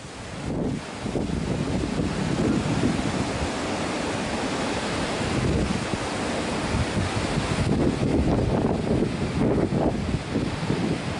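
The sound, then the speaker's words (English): Rough, churning waves crash and wash continuously on the Sea of Galilee during a sudden windstorm while strong wind roars and buffets the microphone, a loud, steady stormy roar with surging bursts and no voices. “Here's a windstorm on the Sea of Galilee.”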